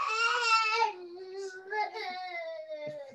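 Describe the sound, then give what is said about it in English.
A young boy cries loudly and continuously after coming to the door, a high wailing sob that trails off into softer, drawn-out whimpering. “my son just came to the door.”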